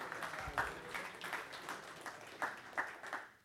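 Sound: audience clapping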